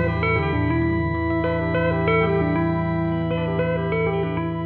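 A song plays steadily and loudly, with sustained harmonic tones and processed, effects-heavy instrumentation washed in reverb and echo. No talking is heard.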